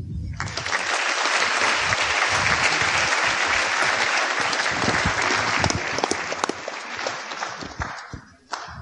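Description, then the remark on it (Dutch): An audience applauds steadily for about eight seconds as philosopher professor Injas de Vis is introduced, a dense, loud wash of many hands clapping that fades out near the end. “Graag een zeer rusteloos applaus voor professor Injas de Vis.”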